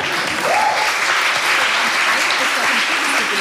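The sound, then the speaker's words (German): Steady, dense audience applause fills the whole stretch, many hands clapping at an even loudness with a brief higher-pitched call or whoop near the start. “Also ein, das könnte sogar ein Applaus wert sein, wie ich finde.”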